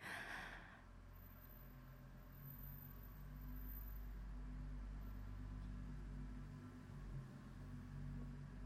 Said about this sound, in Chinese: 他开进来了，听到了吗？你没有听到？你听到的引擎声越来越近。